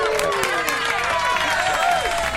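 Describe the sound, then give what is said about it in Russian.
A crowd applauds steadily, with dense clapping filling the whole stretch and some cheering voices mixed in, sustained at an even, moderately loud level. “Спасибо, еще раз аплодисменты.”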